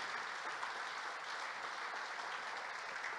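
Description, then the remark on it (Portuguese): An audience applauding Jesus: dense, steady clapping from many hands that holds at an even level throughout, a continuous crackling wash with no voices standing out. “Dá um aplauso a Jesus.”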